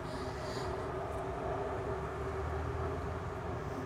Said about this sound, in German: Oder oh, kommt ein Zug.